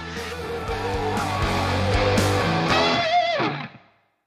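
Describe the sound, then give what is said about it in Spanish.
A loud, heavily distorted electric guitar through a cranked, miked tube amp turned all the way up plays thick sustained chords, then a wavering bent note rings out before the sound cuts off near the end. “Simplemente es el sonido de la guitarra con el amplificador a todo dar.”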